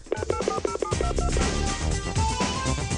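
A rapid series of telephone keypad tones, each short dual-pitched beep following quickly after the last, clear, with a brief musical bed continuing underneath.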